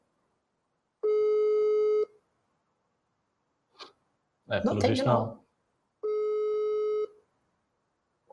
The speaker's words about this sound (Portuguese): Estamos tentando o pessoal ligar no deputado federal Kim Kataguiri aqui, ao vivo, vamos ver se ele me atende